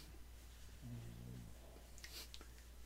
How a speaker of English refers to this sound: Why is your dog making these noises? Those are love noises. she loves to pets. Those are happy grunts. Yeah, so does. That's how she communicates. She says, "Hello, I love you too." She's a good girl.